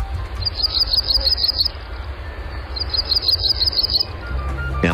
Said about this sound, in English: Yes, it was the Blackburnian warbler, a bird that breeds in eastern North America, from southern Canada down through New England to North Carolina and westward through the Great Lakes region.